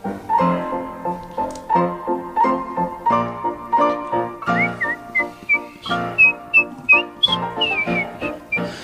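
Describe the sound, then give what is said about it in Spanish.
A bright whistled rendition of Beethoven's Turkish March melody, used as the music of the El Chavo show, short rhythmic notes bouncing over a steady, plucky instrumental accompaniment, the whistle growing more prominent in the second half. “Estamos escuchando Beethoven, la marcha turca, que en realidad es la música.”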